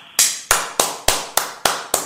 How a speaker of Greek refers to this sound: Τελείωσε. Χειροκρότημα.